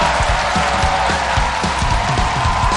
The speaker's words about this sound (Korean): 이제 패널 여러분들 모시겠습니다. 여러분 박수로 환영해 주십시오. 어서 오십시오.